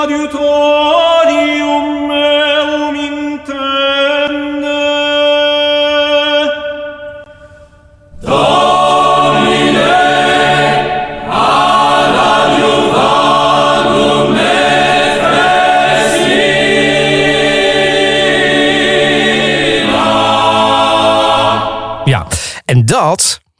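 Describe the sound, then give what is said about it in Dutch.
A recording of the Baroque choral work Il Vespro della Beata Vergine, played on Spotify: a few seconds of sustained sung intonation, then a full choir with bright instruments bursts in loudly and continues in a dense, festive texture before cutting off abruptly. “En toen kwam ik het volgende tegen: Il Vespro della Beata Vergine. Even luisteren.”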